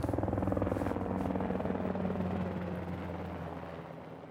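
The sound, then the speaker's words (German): A helicopter passes overhead above border guards at the US border fence in El Paso, its loud rhythmic rotor thumping and engine drone filling the air before gradually fading as it moves away. “Noch einmal fliegt der Hubschrauber über die Grenzschützer hinweg, die wissen, auch morgen und übermorgen werden sie auf illegale Migranten treffen.”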